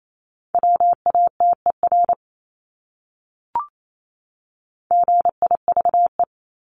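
Morse code sent at about 28 words per minute: a steady mid-pitched tone keyed in quick dots and dashes, two bursts separated by a pause with a single soft click between them.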